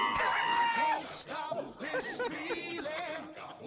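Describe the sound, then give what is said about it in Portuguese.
A voice lets out a loud, screeching roar imitating Godzilla for about a second, then gives way to voices talking or singing. “Eu queria aquele grito do Godzilla, cara, pra gente.”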